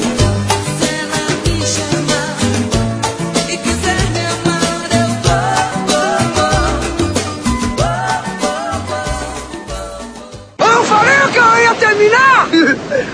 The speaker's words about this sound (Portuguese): Porque ele tá dentro da portaria do prédio da frente. Caralho. É, ele tá dentro da portaria, tu imagina quanto esse alto esse filho da puta tá berrando.